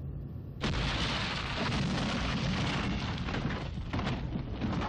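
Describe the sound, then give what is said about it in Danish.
A deep, heavy rumble bursts in after a moment of quiet and rolls on steadily, loud, like sustained underground thunder growling from below as the ground shakes. “Jorden rystede under hendes fødder, fuldt af en dyb bullerne rumlen, som et underjordisk tordenvær, der blev kanaliseret af hende”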